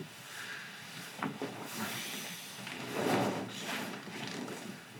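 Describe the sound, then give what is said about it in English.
A drawer slides open with a low wooden scrape and a few soft knocks, a bit muffled, against a faint hissy background with no talking. “So those only three I could they're in a drawer where I have to pull this thing out.”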